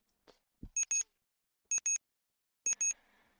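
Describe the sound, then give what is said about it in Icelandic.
A television with a red flashing light beeps in three pairs of sharp, high electronic tones, spaced about a second apart, with a soft thump just before the first pair and no talking. “Nú er það fyrir að pípa líka.”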